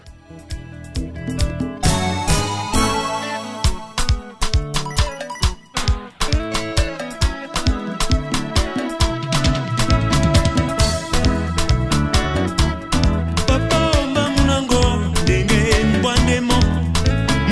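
A Cameroonian song in the Douala language, from the Littoral region, plays loudly and continuously, with dense layered instruments and sharp, steady percussive hits driving an upbeat rhythm throughout.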